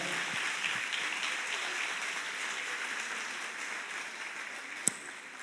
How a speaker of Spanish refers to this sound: Un aplauso al Señor.